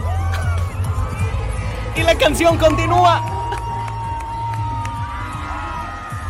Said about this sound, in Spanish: A ver si alcanzas a, a percibir cuando la gente empieza a gritar. Chécalo. Todo bien ahí con el micro. Y se le cayó.